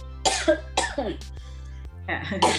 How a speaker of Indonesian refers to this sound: Ini maaf lagi batuk mungkin ya. kering, kering.